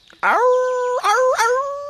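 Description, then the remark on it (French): A loud wolf howl in a forest at nightfall holds one long tonal cry for nearly two seconds, its pitch lifting upward twice in swooping steps before trailing off slightly, with no talking. “Milone entend un bruit dans la forêt. Puis il voit cinq loups.”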